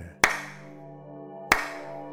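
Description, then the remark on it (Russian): Two slow, sharp hand claps about a second and a half apart, each followed by a long reverberant tail, over a steady low musical drone. “Меценат перестал хлопать и поглядел на Дару.”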